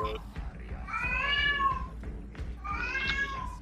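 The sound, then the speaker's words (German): A cat meows twice in long, drawn-out, wavering cries, the second following a short pause, with a low background rumble underneath. “äh, ist, das eine, Kiste oder ein Baby im Hintergrund? Baby. Ich weiß nicht, so klingt zu eintö einförmig. Baby. Okay. Katze.”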